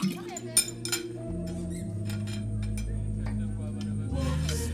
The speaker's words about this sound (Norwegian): Bestikket er i gammelt sølv og tallerkenene gulnet av velde. Vi drikker vin av krystallglass.